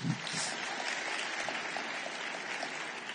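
Steady audience applause, a dense wash of many hands clapping at an even level for a few seconds, with no voices standing out.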